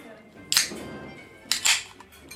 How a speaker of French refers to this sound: tu nous présentes la bière, tu veux pas l'ouvrir Mais bien sûr, immédiatement, subito.